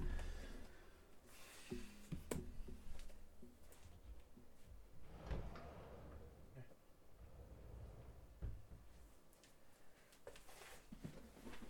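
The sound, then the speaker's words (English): A door being opened, with a few sharp clicks and thumps of the handle and latch spread over several seconds, amid shuffling and rustling movement. “But, oh, I gotta open this fucking door.”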